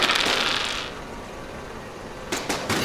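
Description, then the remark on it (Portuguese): Two dice rattle and tumble in a bright, clattery burst, fade briefly, then a few sharp clicks sound as they come to rest. Nobody speaks. “Dois dados.”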